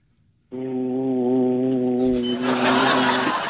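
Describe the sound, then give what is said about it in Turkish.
A voice imitates the hum of a running refrigerator, meant to stop when the power suddenly cuts out, with a steady, buzzing drone held for about three seconds. Loud, hissy noise, like a crowd reacting, rises over the end of it. “Aniden elektrikler kesilen bir buzdolabının sesini taklit etmenizi istiyoruz efendim.”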